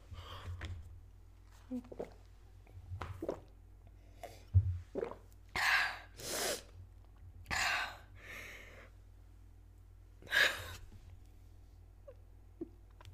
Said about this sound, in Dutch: Ik drink even een slok water.